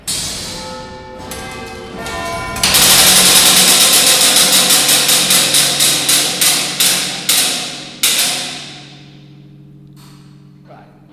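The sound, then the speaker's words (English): The quarter (chiming) train of the Victorian cast-iron and steel Big Ben clock mechanism whirs, then bells ring out a quarter-hour tune, a series of loud, evenly spaced metallic strikes with a mechanical clatter beneath, fading into a lingering hum. “This is called the quarter train or the chiming train. This is the one that actually plays the tune, like that.”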